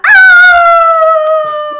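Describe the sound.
A person imitates a wolf heard at night in a wildlife park with a single loud, sustained howl, its tone sliding slightly downward and holding steady for nearly two seconds.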